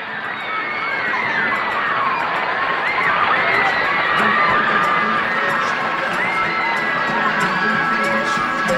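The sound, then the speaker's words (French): A large crowd of fans screams and cheers continuously at a singer moving his legs and hips on stage, a dense wall of high-pitched shrieks and shouts that stays loud and sustained throughout, with no clear speech. “Alors elle a dit, quand on l'a regardé quelques instants, on comprend pourquoi tout le monde se met à hurler.”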